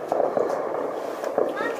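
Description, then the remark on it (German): Fireworks go off in a few sharp, cracking pops at uneven intervals, heard over a steady background murmur that may include voices. “Guckt ihr, da war jetzt Feuerwerk.”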